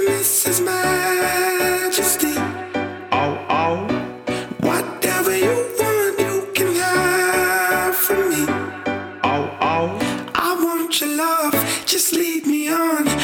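pop song played

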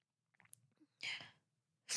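human body sound, crying and sniffling

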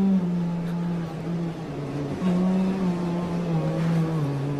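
humming

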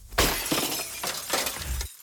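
impact, windshield glass breaking

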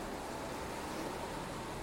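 nature, stormy ocean waves crashing

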